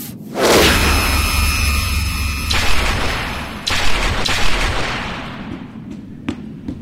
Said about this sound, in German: Hört ihr mich? Weg von der Tür, ich brenne sie auf.